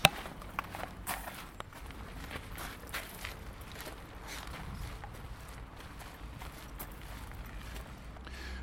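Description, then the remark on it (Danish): Footsteps walk steadily over rough ground to go and look at beehives, a regular crunching and shuffling rhythm of moderate loudness, with a low rumbling background and no talking. “Nu er vi skulle gå hen og kigge ned i stedet, ja.”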